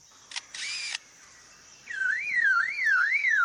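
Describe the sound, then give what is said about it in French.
A bird mimics a car alarm: after a couple of quick clicks imitating a camera shutter, a loud, clear warbling siren tone sweeps up and down in steady, repeating waves, alone. “Et voilà l'alarme d'une voiture.”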